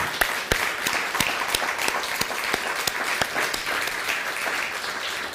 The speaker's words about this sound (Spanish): Así que saludamos a todos los de las islas de ahí del norte, que es eh, Puerto Rico, eh, República Dominicana y Cuba. Un fuerte aplauso a todos ellos que nos ven.